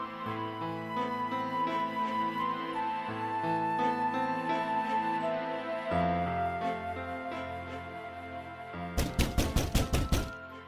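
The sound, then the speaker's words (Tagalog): Soft, sustained music plays, then near the end a rapid burst of about eight heavy, loud thuds of someone pounding on a door cuts in over it. “Sandali lang naman, masisira mo na pinto.”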